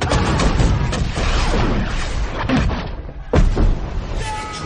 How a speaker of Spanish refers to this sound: Desde las galeras varios disparos de cañón nos pusieron en guardia